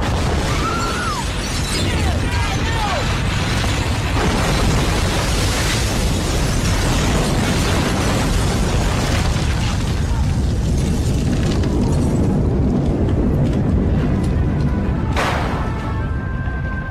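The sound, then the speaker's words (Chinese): A huge explosion roars into a long, dense rumble of crackling, clattering debris that stays loud throughout, with a sharp extra crack near the end. No one speaks. “惊天动地的爆炸声里，里昂轻轻合上了沉静的眼睛。”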